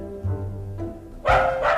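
A dog gives a couple of loud, harsh barks after a brief low, droning rumble, with no talking.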